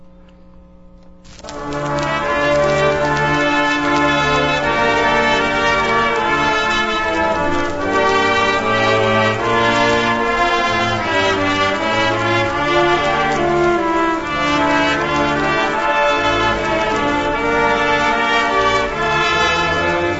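After a brief quiet moment, a stately instrumental performance of Hatikva, the Israeli national anthem, begins as closing music for a radio show and plays loudly and steadily, with rich sustained brass-like chords and no voices.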